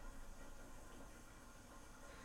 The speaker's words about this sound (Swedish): Det där är min diskmaskin.